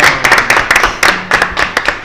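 Loud applause in a steady, even rhythm, with sharp claps arriving roughly four times a second over about two seconds and no voices over them.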